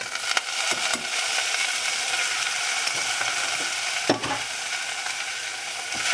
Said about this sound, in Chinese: 好，倒了橄榄油之后呢，稍微让它热锅一下。热锅热油之后呢，就把我们刚刚的虾子的头跟壳全部都倒下去。